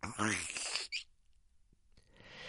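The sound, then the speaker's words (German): A voice imitates the seal of a new Nutella jar breaking open for the first time: a rising squeaky, whistling sound ending in a short breathy pop, followed by a brief quiet pause and soft hiss. “Wer von euch kennt dieses jungfräuliche Geräusch, wenn man ein Glas Nutella zum ersten Mal aufmacht?”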